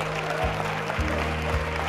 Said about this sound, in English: Now clap your hands and thank Him for it.